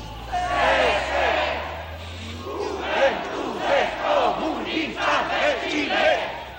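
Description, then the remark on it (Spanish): A large crowd at a funeral in Santiago, Chile, in September 1973 shouts political slogans in favor of the Communist Party in unison, rhythmic chanted bursts rising and falling continuously, heard from amid the gathering with a low rumble underneath at first. “Se escuchan gritos a favor del Partido Comunista.”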